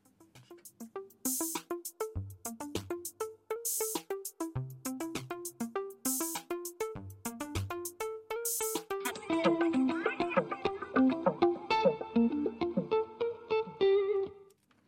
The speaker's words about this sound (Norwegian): Det var …, en deilig R&B og hiphop-miks eh, som ender i en eh, frisk bris